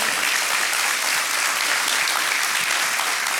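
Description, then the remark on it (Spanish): Steady, dense applause from an audience welcoming a guest, the director of Back to Back, a continuous crackle of many hands clapping at an even loudness for a few seconds, with no voices standing out. “Así que recibamos con un fuerte aplauso, por favor.”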